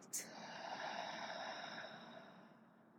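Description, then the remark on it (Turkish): A long, deep breath pushed out through an open mouth during a guided breathing exercise, a steady airy whoosh lasting a few seconds that slowly fades. No one speaks. “Ağzını aç bu sefer boşalt.”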